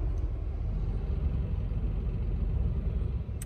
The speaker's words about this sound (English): I'm now sitting in a traffic jam at a go stop-go sign.